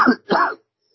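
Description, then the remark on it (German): Two quick, rough throat-clearing bursts, like someone holding back a coughing fit, followed by silence and a faint trailing breath. “nochmal schnell den Anker geworfen vor dem richtigen Hustenanfall.”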